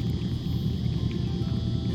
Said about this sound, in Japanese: 今ですねシドニー郊外の入江に来てるんですがここは入江なのでね波もなく、えー、水際でね水がパチャパチャいってますけれども